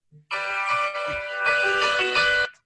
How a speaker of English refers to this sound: And I apologize, my phone's ringing. no, that's fine. That gives us some background music. I'm fine with that.